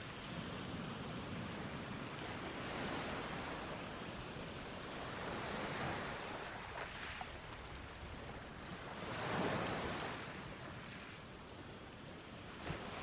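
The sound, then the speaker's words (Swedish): Soft waves lap steadily at the shoreline, a continuous wash of water with gentle swells rising and falling every few seconds, calm, with no voices. “Du står där i vattenbrynet och upplever rytmen i vågornas sakta skvalpande.”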